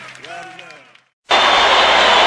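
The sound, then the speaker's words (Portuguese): A brief voice gives way to a short pause, then the crowd at the final of the MBB Shell 82 festival at the Maracanãzinho in Rio bursts into loud, dense applause that holds steady as a continuous roar to the end. “Uma grande festa com muito aplauso e, é lógico, muita vaia.”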